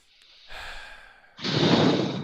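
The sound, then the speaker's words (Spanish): A slow, deep breath demonstrated as a breathing exercise: a softer airy inhale followed by a longer, louder, sigh-like exhale, with no talking. “Entonces, eh, recuerda tus respiraciones, así.”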